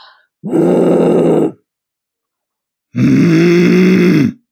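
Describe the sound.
A person pretending to be angry, teeth slightly open, makes two raspy, grumbling throat growls like an annoyed grumble, each about a second long and separated by a short pause, loud.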